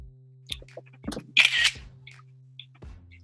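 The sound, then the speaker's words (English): A simulated camera shutter click from a screenshot, a short crisp snap with a brief burst of bright noise, over a faint steady hum and a few soft clicks. “right, took a screenshot.”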